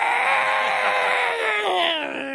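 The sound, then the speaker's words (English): A voice imitates the harsh, raspy squawk of neighborhood birds, one sustained strained cry that slowly drops in pitch, loud, with no other sounds around it. “The most the sounds that most of these birds make in my neighborhood is this.”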